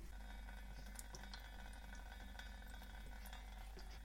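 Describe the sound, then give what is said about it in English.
A very thin, continuous stream of water runs steadily from a tap turned on for a charged-balloon static electricity experiment, a soft continuous hiss with faint splashy flickers, fairly quiet, with no one talking. “Okay, turning on my tap now.”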